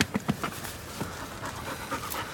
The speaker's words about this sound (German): Was war das? Ein weißer Tiger. Seit drei Tagen scharwenzelt er ums Haus rum. Riecht wahrscheinlich das Wild in der Speisekammer.